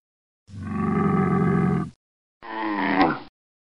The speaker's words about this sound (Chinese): 给大家一点提示哦，这个声音的主人住在沙漠里，背上有一个驼峰，想到了吗？对，它就是骆驼。